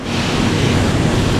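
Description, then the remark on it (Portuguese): A cement kiln at the heart of a Votorantim Cimentos cement factory roars with a loud, steady, unbroken rumble, a dense wash of noise heavy in the low end, with no voices. “Esse som é o som do forno de cimento.”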